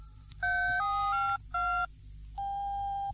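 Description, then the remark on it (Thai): A telephone call to the city waterworks authority being dialed: short electronic two-tone beeps, a longer run then a brief one, followed by a steady mid-pitched ringing tone over a low background hum. No one speaks. “ฉันจะโทรไปที่ การประปานครกบ”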